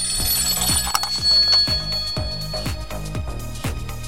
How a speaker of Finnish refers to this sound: Uskalletaanko me vastata tähän puheluun? Kuuletteko? Aivan aito puhelu on tulossa.